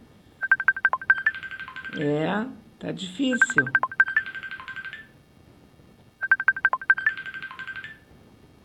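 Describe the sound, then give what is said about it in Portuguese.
Two quick runs of electronic telephone keypad beeps, clear, as a phone number is dialed for a call that fails to connect, with a voice briefly speaking in between. “Ficava horas tocando telefone e não conseguia falar.”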